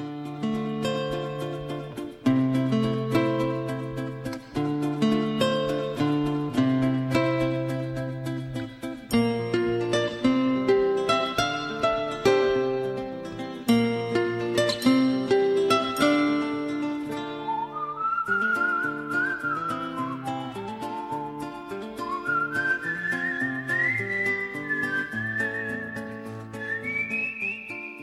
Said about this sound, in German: Aber das Titelthema trotzdem, das gehört immer noch zu meinen Lieblingen.